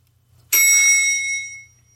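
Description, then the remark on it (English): A single bright elevator ding rings out loud, then fades over about a second, with a faint low hum underneath and no voices. “I'm not gonna hit the elevator sound, um, but I will. I'll hit the elevator to let you know when to go based off of what I had already heard.”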